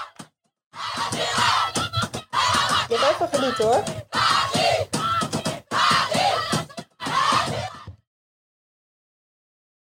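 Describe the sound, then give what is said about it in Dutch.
A large crowd of PSG supporters in a football stadium roars and chants in loud, bursting waves separated by brief pauses, celebrating PSG knocking Olympique Lyon out of the Champions League, then falls silent about two seconds before the end. “Voor degenen die zich afvragen wat dit is, dit is het gejuich van PSG nadat ze Olympique Lyon uit de Champions League knallen.”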